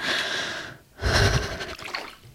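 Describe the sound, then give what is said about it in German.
Sharp gasping breaths of a person stepping into cold water: a ragged intake, a brief pause, then a louder, heavier burst of panting with a faint watery splash beneath. “Also was ganz Normales ist wirklich dieses Phänomen, dass man ins Wasser geht und dann erstmal so ein bisschen die Luft wegbleibt.”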